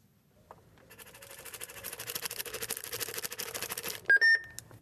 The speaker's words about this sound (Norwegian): Det er lyden av medisindispenseren på størrelse med en kaffemaskin, som skriver ut riktig dose og gir lyd når pleietrengende skal ta pillene. Om ikke pasienten tar medisinen, blir pårørende eller pleiere varsla på SMS.